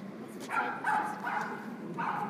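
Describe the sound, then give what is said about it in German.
A dog barks four times in a loose, uneven series of short yaps, moderately loud, over a soft hum. “das ist jetzt ein Hund.”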